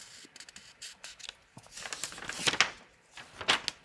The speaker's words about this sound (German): Jetzt lass uns mal ein bisschen weiter blättern.